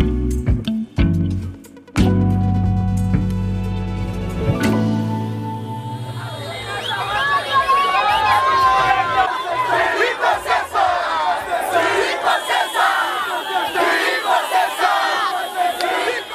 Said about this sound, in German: die Menschen, die man da hört, die feiern den Wahlsieg von Hakainde Hichilema